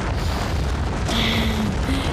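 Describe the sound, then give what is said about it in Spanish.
A loud, continuous avalanche rumble, deep and roaring, with a sudden surge of crashing noise partway through that keeps thundering on without any voices. “Estamos protegidos sin importar qué tan grande sea esta avalancha.”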